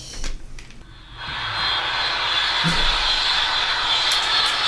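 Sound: airplane engine sound effect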